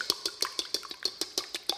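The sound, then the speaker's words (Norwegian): Egg whites being whisked in a bowl: a quick, steady run of about eleven bright metallic clinks and swishes, evenly spaced, with a faint ring after each stroke and no voices. “Once the butter is well blended into the mix, it's time to whisk the egg whites.”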